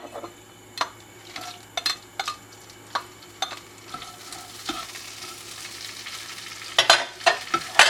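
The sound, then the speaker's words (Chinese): Shrimp sizzle and crackle in hot oil under a steady low hum, with sharp spatula clicks scraping the pan every second or so; the frying grows denser and louder near the end. No one speaks. “这时候呢，你就可以把你的虾子丢进去。”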